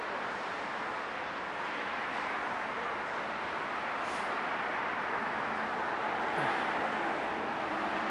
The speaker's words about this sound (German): Ja, das ist aber ein Straßenlärm.